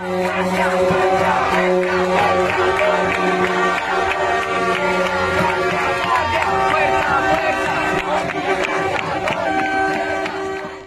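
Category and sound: crowd, crowd cheering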